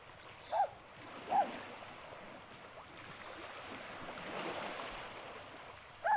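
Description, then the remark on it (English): Ocean waves wash steadily onto a beach, the surf swelling louder midway through, with three short high-pitched calls ringing out over the roar. No one speaks. “She remembers the feeling of the sun on her skin, the sound of the sea, but she also recalls the sadness.”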